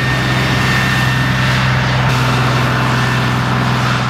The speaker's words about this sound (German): Ja, lassen wir erst den Trecker vorbei.